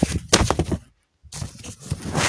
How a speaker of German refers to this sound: Oh mein Gott, Leute. Das Handy ist mir jetzt gerade zum dritten Mal in dieser Sprachmemo runtergefallen. Was ist los? Was? Hat mein Handy gerade irgendwie so beschlossen, irgendeinen so Lauf zu machen? Irgendwie durchs halbe Zimmer oder so?